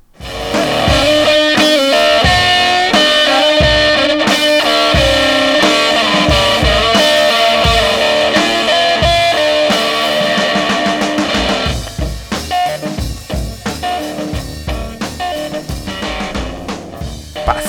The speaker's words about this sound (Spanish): Brutal, este güey es una onda muy Hendrix, justamente, muy eh, sesentera, setentera, pero durísimo, o sea, con la distorsión a tope y rifándose la machine.